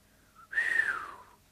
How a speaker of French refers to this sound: Pierre sifflote d'une façon significative, puis il dit Alors il vaut mieux faire ainsi.